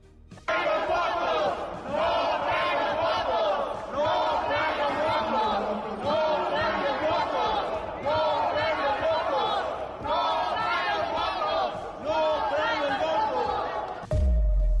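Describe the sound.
A loud crowd of opposition senators in the Senate shouts in unison, rejecting a proposal, chanting in rhythmic bursts of roughly two seconds with brief pauses between, the voices raw and massed throughout, ending in a sudden low thump.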